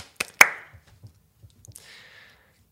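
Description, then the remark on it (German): Two quick, sharp hand claps ring out, followed by a few faint soft taps and a brief ringing tone, with no talking; a brief round of clapping to celebrate passing 2,000 Instagram followers. “Ist gut, wir äh, klatschen alle kurz noch.”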